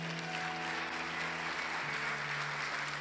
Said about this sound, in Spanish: El que lo crea, déle un aplauso a Dios.